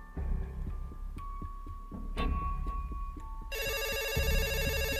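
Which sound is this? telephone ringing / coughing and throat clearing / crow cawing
telephone ringing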